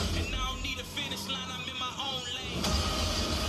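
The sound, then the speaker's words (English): Small racing car engines in a video game trailer whine and rev in quick rising sweeps over a steady low rumble, like vehicles racing past at speed, fairly loud and continuous throughout. “okay, it's racing in these cool little cars.”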